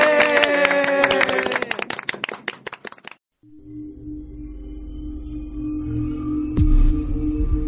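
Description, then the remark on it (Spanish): A group of students claps in dense, loud applause for classmates after a presentation on astronomy for about three seconds before it cuts off, then steady music with sustained low tones begins. “Un aplauso para sus compañeros.”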